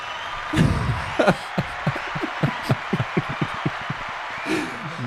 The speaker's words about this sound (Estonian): Leedu esiklubi Karkstai sai kodus äh, võidetud lausa kolm-null, aplaus